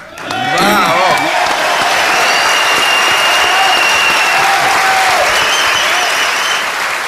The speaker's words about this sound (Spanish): Estamos aquí en Formosa. Eh, y al oír Formosa es cuando las muchedumbres estallan en un grito de júbilo. Formosa.